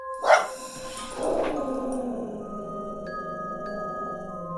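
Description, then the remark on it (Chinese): A small dog growls quietly: two short, rough bursts followed by a low, steady rumble that lasts to the end, with faint sustained tones in the background and no talking. “小狗紧接着跟着妈妈，因为刚刚才被小主人责骂，所以狗狗不敢大声叫，但是狗狗还是小声地怒吼着。”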